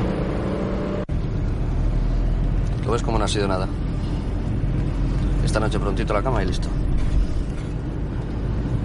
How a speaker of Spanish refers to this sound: Después el abogado y Santa circulan en un coche de color claro.